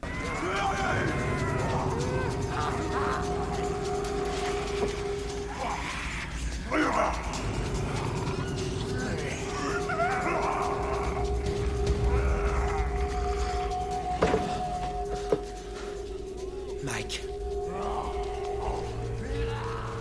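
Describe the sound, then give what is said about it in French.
In a film, human voices of dirty homeless characters growl, grunt and yelp like animals in overlapping bursts for the whole stretch, loud, over a steady droning hum. “il faut dire que la mise en image très tremblante et la photo moche bah, n'aident pas vraiment à discerner leurs actions, et alors que dire de leurs grognements euh, ridicules.”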